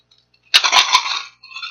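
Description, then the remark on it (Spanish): A bag of coins, thrown backwards, drops onto a hard floor: a few heavy thuds followed by a dense burst of metallic jingling and clinking that quickly settles, fairly loud, with no talking. “pero no contabas con, con la cantidad de monedas que tenía y donde lanzas para atrás suena como cae un costal de monedas al piso a ver si recreo.”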